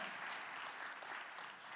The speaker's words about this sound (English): Come on, clap your hands, say a good amen.